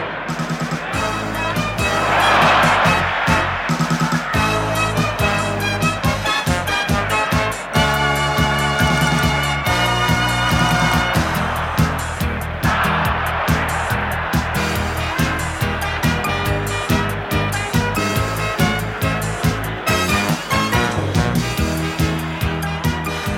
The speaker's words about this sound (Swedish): Det vi hör här är alltså någon slags version av någon slags artist som, som alltså har gjort en cover på signaturmelodin till Grandstand, ett BBC-program om sport som gick i decennier.